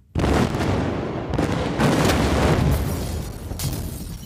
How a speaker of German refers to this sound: Um die Explosion, Krieg? Explosion, Explosion. So richtig geil Sachen in die Luft sprengen, richtig mm. männlich auch.